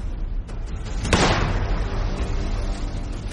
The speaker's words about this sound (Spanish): Mientras Oswald dispara por tercera y última vez.